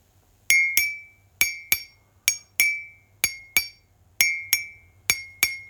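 A ceramic mug is tapped in quick pairs, about a dozen sharp taps in all, each ringing with a clear bright tone that decays briefly; the two taps in each pair, one perpendicular to the handle and one 45 degrees beside it, differ slightly in pitch because of the handle.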